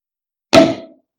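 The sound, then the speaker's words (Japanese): A champagne cork pops open once with a sharp, loud burst, followed by a brief hollow ring that fades within half a second. No one speaks during the pop. “そろそろあれですかシャンペーン。”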